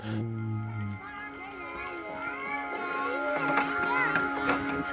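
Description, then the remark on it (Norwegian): Children's voices chatter and call out as they play at a playground in Brumunddal, overlapping in a lively outdoor scene, with a steady low hum running underneath and brief bursts of activity toward the end. “De ungene der som driver og leker der, det er det som på en måte blir fremtiden vår.”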